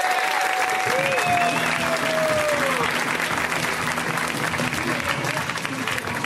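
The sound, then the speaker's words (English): An audience applauds and cheers steadily for several seconds as comedian Alice Wetterlund is introduced, a dense wash of clapping with a few whoops rising over it, loud and sustained throughout. “Let's hear it right now for Alice Wetterlund, guys. Give it up for Alice.”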